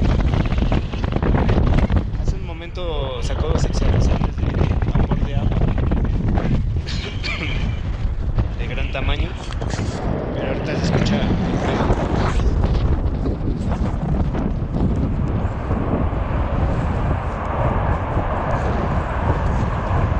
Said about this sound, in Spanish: Ese es, el sonido solamente de la salida del gas.